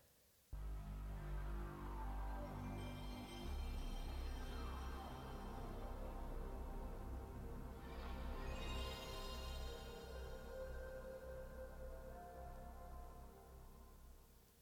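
A PlayStation 1 and PlayStation 2 console startup sound: a deep, swelling synthesized drone with bright shimmering tones and rising sweeps, loud and sustained for about fourteen seconds, with no voices.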